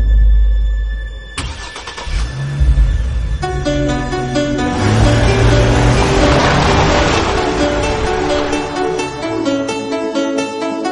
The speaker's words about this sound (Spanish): Es la llave del coche. Está arrancando los motores.